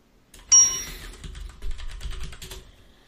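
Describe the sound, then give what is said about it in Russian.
A hotel-style push-button desk bell with the word 'наливай' (pour) written on it gives one bright, sharp ding that rings out briefly and fades, followed by a couple of seconds of light clattering and tapping. “Он такой, как э, в отелях, только на нем написано «наливай».”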